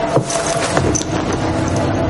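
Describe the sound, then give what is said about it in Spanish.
A few light metallic clinks and jingles as several coins are set down on a silver shell, over a faint steady background hum. “deja algunas monedas sobre una concha de plata y la mujer se gira.”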